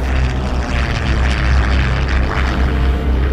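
Propeller bomber aircraft drone steadily overhead during the war, flying over islands on the front line, a loud, continuous low engine throb with a thick rumbling hum that stays constant throughout, no voices present.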